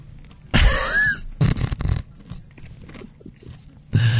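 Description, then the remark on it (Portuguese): Someone chewing noisily, with a few loud, crunchy bursts of mouth sounds at irregular intervals and softer rustling noise in between. No one speaks. “Tu não vais estar a comer gás enquanto estamos a gravar, pois não”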